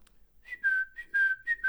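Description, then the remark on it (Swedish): Someone whistles an imitation of birds chirping: about five loud warbling phrases at a steady high pitch, sliding slightly downward, with short pauses between and no talking. “Fåglarna sjukt. kvittrar.”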